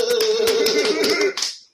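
A short burst of applause: quick, overlapping hand claps from a small group for just over a second, with a steady sustained voice-like tone underneath, then cutting off and fading out.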